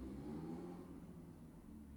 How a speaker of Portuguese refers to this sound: Dá uma moto a passar agora.